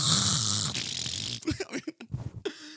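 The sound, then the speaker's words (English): A person mimics a loud, raspy snore, as of a man who has taken his CPAP machine off, with one long, breathy rattling inhale, and then a voice starts talking right after it. “And then they hear me snoring.”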